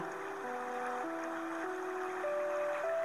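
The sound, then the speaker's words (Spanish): A steady wash of flowing stream water runs continuously beneath soft, sustained musical tones that shift slowly in pitch, gentle and even throughout with no voices. “Percibí el canto de los pájaros, el sonido del agua.”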